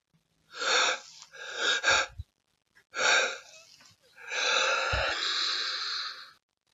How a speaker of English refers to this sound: I'm going to sneeze.